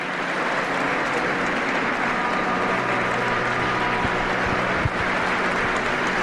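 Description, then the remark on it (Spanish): Sustained applause from a large crowd in a church, in front of the priests of the diocese, a dense, steady wash of clapping that stays loud and even throughout with no voices standing out above it. “Suben los decibelios de esos aplausos.”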